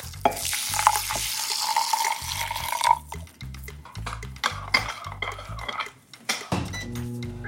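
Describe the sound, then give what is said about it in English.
A half cup of water splashes and trickles as it is poured into a bowl of steel cut oats for a few seconds, followed by light clinks of dishware, with soft background music playing throughout. “We're going to put that half cup of water in the bowl with the steel cut oats and then hit the microwave.”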